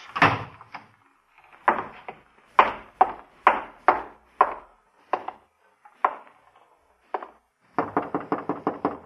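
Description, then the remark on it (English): Sharp knocks on a wooden office door, coming in uneven groups with brief pauses, then a final quick flurry of raps, with door handling and opening sounds mixed in. No one speaks. “Close that door.”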